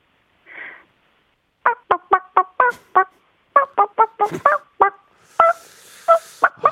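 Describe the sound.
A person imitates a chicken, clucking in a quick run of about twenty short, sharp bursts with brief pauses, loud, after a soft breathy sound at the start.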